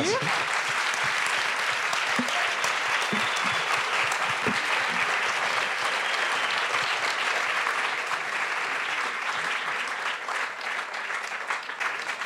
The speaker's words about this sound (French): Merci à tous les trois. On peut les applaudir.